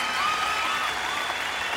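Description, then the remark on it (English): Steady applause from a crowd with cheering mixed in, greeting a singer's sing-along performance: a dense, even wash of clapping that holds at a constant level for the whole short stretch, with a few raised voices above it. “The crowd cheered with delight and surprise.”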